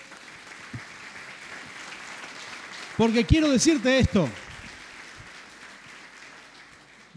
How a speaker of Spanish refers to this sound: Gloria a Dios, aleluya. ¿Por qué no le damos un fuerte aplauso al Señor?